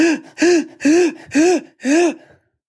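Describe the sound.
A voice imitates a crying child's gasping inhales: five quick, voiced sobbing breaths in a steady rhythm, each rising and falling in pitch, fairly loud.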